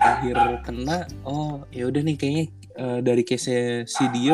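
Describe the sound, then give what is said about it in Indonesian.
A pet dog barks repeatedly in a quick series of yips and woofs, fairly prominent, while a person keeps talking over it. “Sorry di background ada suara anjing gue lagi gonggong ya.”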